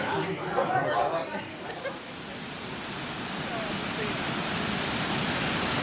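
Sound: waterfall rushing water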